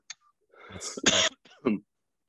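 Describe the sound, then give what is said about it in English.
A few harsh coughs and throat-clearing grunts in quick succession, loud and raspy, with short pauses between bursts and no talking. “Without you know coughing up a lung”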